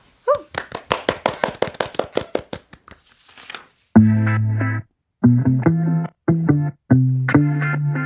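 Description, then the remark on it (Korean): A quick, steady burst of about a dozen crisp hand claps, applause to call up a song, fading out before the song starts playing. “저희는요 이쯤에서 노래 박수로 청해 듣도록 하겠습니다.”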